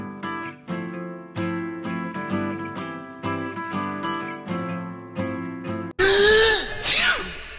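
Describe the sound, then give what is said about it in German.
Steady strummed, chord-based music plays for about six seconds, then cuts abruptly to a loud, breathy, noisy burst with a rising and falling voiced sweep, like a single drawn-out sneeze. “Gesundheit.”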